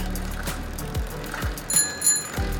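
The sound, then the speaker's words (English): An eight-speed Schwinn bicycle rolls along with a steady, rhythmic low whir and clicks, and partway through its bell rings bright and high a couple of times. No one speaks. “Hey, can we borrow your bike?”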